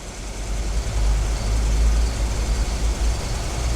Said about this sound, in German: Und es dauerte gar nicht lange, da kam er mit dem Jaguar an. Kurz vor Mitternacht fuhr Bob mit dem Wagen bei dem Lebensmittelladen von Torres vor. Torres kam heraus und musterte den Luxuswagen.